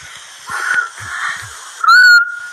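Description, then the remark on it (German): A person blows a couple of breathy, airy attempts, then produces a short, clear whistled note that rises slightly and holds briefly before fading back to hiss. “Endlich kann ich wieder pfeifen.”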